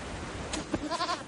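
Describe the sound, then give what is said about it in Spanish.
A goat kid gives a short, quavering bleat near the end as a shepherd guides it across wide meadows with a herd of goats, moderately loud over a steady outdoor hiss, with no one talking. “El pastor guía a un cabritillo.”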